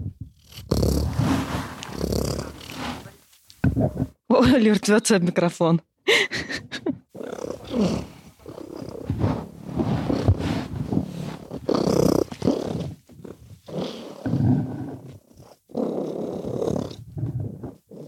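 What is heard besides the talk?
cat purring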